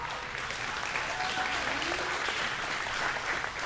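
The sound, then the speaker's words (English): Steady audience applause at Snowbird fills the whole stretch, a dense, even wash of many hands clapping at once without pause, with a faint hint of voices mixed underneath. “Keep clapping because one of these days some of y'all are going to be with me over there.”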